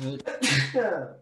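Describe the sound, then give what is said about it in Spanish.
A single loud sneeze, opening with a short voiced intake, then a sharp breathy burst that trails off into a fading vocal tail. “Primero estornudo. Primero estornudo del podcast.”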